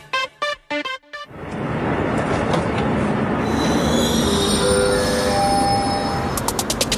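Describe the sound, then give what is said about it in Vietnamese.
A few quick chime tones ring out, then an MRT train pulls in with a steady rumbling roar and a rising electric whine, ending in a burst of rapid clicking. “Xin chào và ngay bây giờ thì chúng ta đang có mặt tại trạm dừng Môn 4.0 của chuyến tàu MRT Drive Zone ngày hôm nay.”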